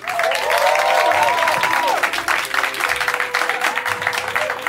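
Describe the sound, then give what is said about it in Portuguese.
An audience breaks into sustained applause for Maurício Merelli, a dense, steady wash of clapping with some whoops and cheers rising over it early on, holding loud for the whole stretch. “Senhoras e senhores, uma salva de palmas para Maurício Merelli.”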